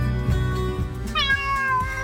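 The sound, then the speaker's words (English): A cat meows loudly, a drawn-out, wavering cry that climbs and then slides back down, with no voices alongside it. “Have you lost your cat? Uh oh, steady kitty.”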